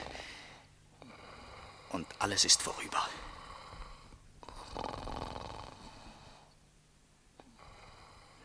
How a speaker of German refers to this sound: Lächerlich dieses Schnarchen, dieser massige Hals, die verwelkte Fratze. Aber es ist ein Mensch. Er atmet.